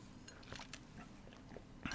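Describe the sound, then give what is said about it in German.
Someone takes a quiet sip of water, with a few soft wet gulps and mouth clicks spread over a couple of seconds, followed by a slightly louder thump at the end. “Ja, gehen wir zum nächsten Spiel, nachdem ich einen Schluck von meinem Wasser genommen habe.”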